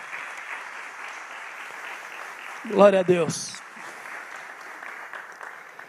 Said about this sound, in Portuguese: Deus seja louvado. Você pode mais uma vez aplaudir o Senhor? Aleluia.